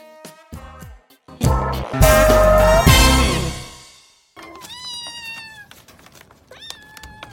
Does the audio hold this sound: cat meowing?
yes